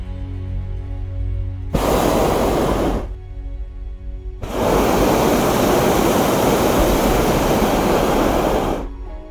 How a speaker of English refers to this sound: Can you hear the burner? It's like a big gas flame that heats the air inside the envelope.